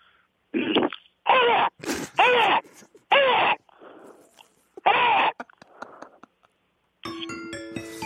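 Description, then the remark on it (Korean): A person from Nowon-gu imitates a crow's caw with a series of loud, harsh, raspy calls, about six in an uneven rhythm, followed by softer breathy sounds and a brief musical jingle at the end. “다음은 까마귀 소리입니다.”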